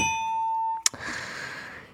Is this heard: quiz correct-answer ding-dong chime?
yes